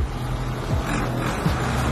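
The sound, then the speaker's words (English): A steady, heavy engine rumble from trucks gridlocked amid crumbling infrastructure in Richards Bay, with a continuous low drone and faint shifting motor tones and no voices. “And with the trucks gridlocked amid crumbling infrastructure, coal dust is swept across the town, an inescapable, dirty plume.”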